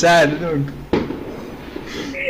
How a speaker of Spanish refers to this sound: Son fuegos artificiales.